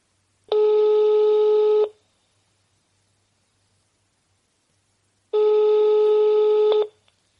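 A telephone ringing tone heard through the line as a call is placed from a radio show: two long, steady, buzzy beeps, each about a second and a half, separated by a few seconds of silence. No one speaks.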